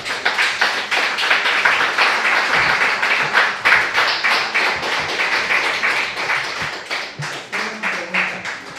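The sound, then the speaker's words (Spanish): Loud, sustained applause from a crowd at the end of a religious teaching, given to the Holy One, a dense rapid patter of many hands clapping at once, steady throughout with slight swells and no voices standing out. “Puede dar un fuerte aplauso al santo, bendito sea.”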